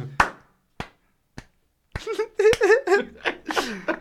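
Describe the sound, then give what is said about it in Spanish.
An imitation of running in wet flip-flops: five sharp, wet-sounding slaps spaced about half a second apart, the last two overlapped by voices that continue afterward. “corriendo con chanclas mojadas, ¿no? Así.”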